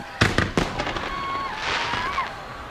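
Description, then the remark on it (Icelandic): A fireworks display: three sharp bangs in quick succession, then a sustained crackle with shrill whistling rockets sliding up and down in pitch, moderately loud throughout. “En það er nú kannski ekki skemmtilegast ódarsefni í heimi eh, flugaldarsýning þó það sé nú ágætt að fá smá svona”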